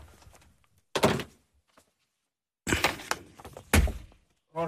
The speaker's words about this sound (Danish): jeg lukker lige døren der